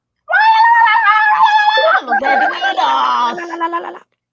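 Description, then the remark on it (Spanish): A loud, continuous burst of many voices shouting and screaming together for about four seconds, high-pitched wails overlapping into a chaotic, deafening crowd uproar. “En ese momento, una gritería ensordecedora los paralizó de terror.”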